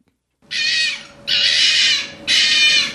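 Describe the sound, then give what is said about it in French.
A red fox's rutting call: three loud, harsh, drawn-out screams, each lasting under a second and separated by brief pauses, with no talking. “Un renard roux en rut.”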